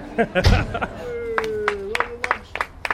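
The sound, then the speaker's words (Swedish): Scattered applause as the Bournemouth team arrives for one of its last pre-season training matches, with a handful of sharp, irregular claps popping out one at a time over a low crowd murmur, and a steady tone holding briefly in the middle. “spridda men otroligt hoppfulla applåder inför en av de sista träningsmatcherna inför den stora premiären för Bournemouth.”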